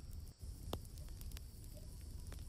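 A campfire crackles softly with a few scattered sharp pops over a steady low rumble of flame, no voices, fairly quiet and continuous throughout.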